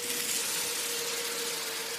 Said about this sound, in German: Sie tauchen dann tiefer, flüchten vor dem Krach, tauchen noch tiefer und schwimmen erst wieder nach oben, wenn der Motorenlärm weniger wird.